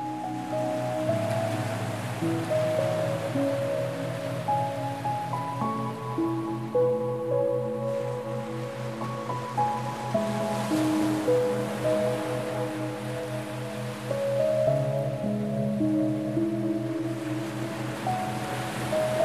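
Ocean waves wash steadily onto the shore in a continuous, even surf, layered beneath soft sustained musical tones, with no voices present.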